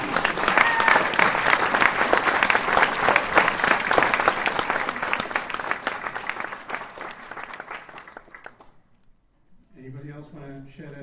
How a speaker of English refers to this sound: I'm going to applaud that.